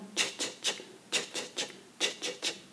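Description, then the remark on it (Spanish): Maracas shaking in a steady pattern of three quick hissing strokes, repeated three times. The bright, rattling shakes stand alone with no voices. “Oye, es que el chichichi ese son las maracas, ¿no?”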